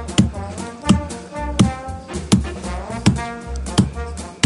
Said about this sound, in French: Il cogne trois fois. Il cogne sur le comptoir comme ça.